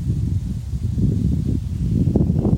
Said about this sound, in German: Hier ist sonnig, aber windig.